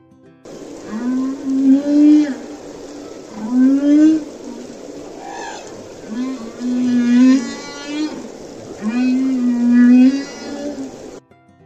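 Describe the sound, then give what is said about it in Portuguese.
A male whale sings a series of long, moaning calls that rise and bend in pitch, repeating in slow phrases with brief pauses, clear and resonant with no voices. “Também sou conhecida como baleia cantora. Adivinha só por quê? Os machos da minha espécie cantam”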